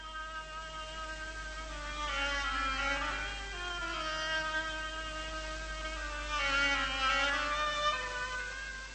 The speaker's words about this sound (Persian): خب باید بدونید تو این داستان یه مرغابی هم هست و نقش مرغابی رو اوبوا بازی میکنه